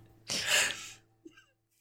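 A dog that cannot bark lets out one loud, breathy huff, a rough rush of air lasting under a second, followed by a faint short snort.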